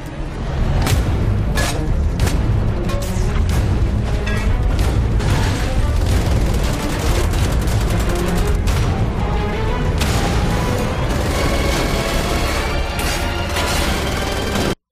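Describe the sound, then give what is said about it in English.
Dense, continuous gunfire crackles over booming explosions, with sharp rapid shots layered on heavy low rumbles for the whole stretch, loud and chaotic like a game battle. “And so it goes on like this for a t- for about a minute longer with lots of the shooting and the explosions and a little bit more of the story.”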